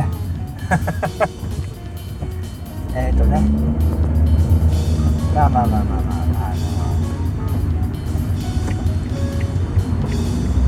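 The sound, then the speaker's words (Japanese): A car drives steadily, its low engine rumble and road noise filling the background, growing louder and fuller partway through, while the man driving talks hesitantly over it. “ああはい今運転に集中してましたね申し訳ないです”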